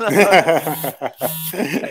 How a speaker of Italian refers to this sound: ogni volta che scrivi si eh, sente la vibrazione del cellulare